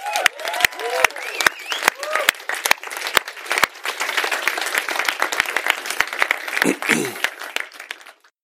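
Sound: audience applause and cheering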